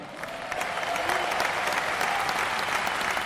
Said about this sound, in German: Dann jetzt einen Applaus. Unsere Marching in der musikalischen Akteure heute Abend hier. Begrüßt mit mir das Musikchor Großen Linden beim Deutschland Military Tattoo.